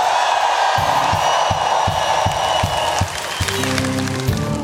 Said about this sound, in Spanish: Double for my trouble. Denle un grito de victoria ya.